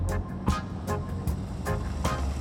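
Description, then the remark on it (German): A car engine drones low and steady as the vehicle rolls slowly in second gear through villages in the Hunsbach valley, with soft rhythmic clunks recurring every half second or so and no voices. “Hunkeler bog ab ins Hunsbachtal, fuhr langsam im zweiten Gang durch die Dörfer.”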